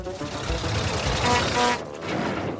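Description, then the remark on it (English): Sir Topham Hatt's small rail car, Winston, rolls into the yard on the Island of Sodor on a warm summer evening, with a steady engine drone and rattling wheels, a squealing brake tone rising before the noise eases as it slows to a stop. “Thomas, James, Percy, and Rebecca were together in the yard when Sir Topham Hatt arrived in his rail car, Winston.”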